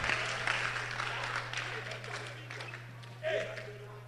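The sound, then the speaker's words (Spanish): A group claps hands steadily and continuously while praying, for about four seconds, a dense crackling patter with voices mingled underneath and a low steady hum throughout, with a brief louder burst near the end. “Al estar orando, vamos a estar aplaudiendo a las manos.”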